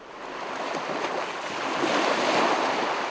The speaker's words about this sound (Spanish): Y el ruido de las olas, recuerdo perfectamente aquella imagen de, mi padre cogiéndome de la mano frente al mar por primera vez, el ruido de aquellas olas me advertía eh, de lo cerca que estaba la intensidad.